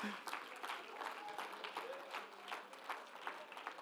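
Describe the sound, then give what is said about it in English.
A church audience claps their hands steadily to praise the Lord, the dense applause holding at an even level with faint voices and murmurs mixed underneath. “somebody clap your hands once again into the wonderful name of the Lord Jesus”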